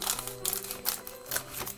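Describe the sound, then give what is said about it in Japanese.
Scissors snip through a crinkly package of Royce' sweets, neatly cutting it open: four crisp cuts at a steady, unhurried rhythm with faint rustling of the wrapper between them. “あこれどうしようかなちゃんとハサミで綺麗に開けましょうかねいつもなんかリビリビリとかって やってしまうので”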